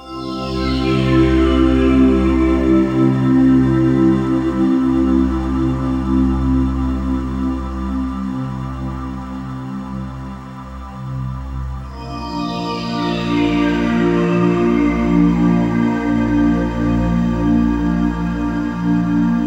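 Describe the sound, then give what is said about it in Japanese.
Steady instrumental music plays from a CD with no voices, built on sustained low droning tones, with shimmering high notes that sweep downward at the start and again about midway. “ここで音楽に気を入れた CD 音機を聴いていただきましょう”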